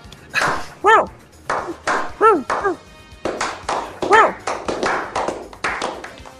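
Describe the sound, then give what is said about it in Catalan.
A dachshund barks three times, sharp yaps spaced a second or two apart, amid a steady patter of tapping and clattering noises. “Por un lado, el mejor amigo del hombre, este maravilloso perro salchicha.”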